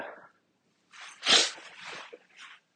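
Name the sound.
sneeze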